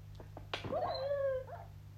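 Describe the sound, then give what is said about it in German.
A few quick yelps lead into a single drawn-out, wavering whine, like a wolf or dog whimpering, from a wolf in a video game, heard over a low steady electronic hum. “Und bin und dann habe ich einen Wolf.”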